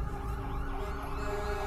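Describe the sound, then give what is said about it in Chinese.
A shrill police siren wails steadily and loudly, its high tone holding without pause over a low rumbling background, with no voices. “我是被刺耳的警笛声吵醒的”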